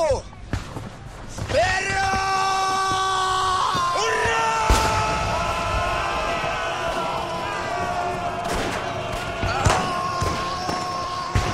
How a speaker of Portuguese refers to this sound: Um alemão corre gritando em direção da estrela, vai perfurá-la com uma faca.